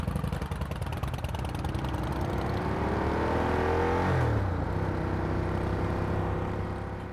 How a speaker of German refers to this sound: Kathi hat nämlich eine richtig dicke Maschine, eine Ducati Diavel. Und damit sind wir über die Straßen gedüst.